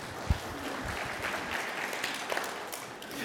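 An audience applauds a participant with dense, continuous hand clapping, a steady patter of many overlapping claps holding at an even level for a few seconds, with no one speaking.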